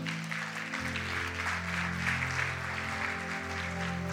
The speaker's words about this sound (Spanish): Dale un fuerte aplauso al Señor.